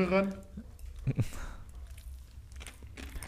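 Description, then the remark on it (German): Faint, scattered crackling and fizzing pops come from the mouths of young men trying Rocks popping candy, heard from about two meters away, with some soft chewing. A voice is heard briefly at the start. “ich sitze zwei Meter von den Boys weg und ich höre das Knistern aus ihrem Mund.”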